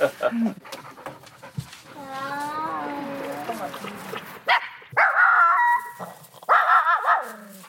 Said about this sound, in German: Lautes Bellen hört man nur, wenn neugierige Gäste über die Mauer in den Auslauf der Hunde spähen.